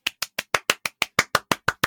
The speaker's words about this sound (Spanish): Estoy aplaudiendo.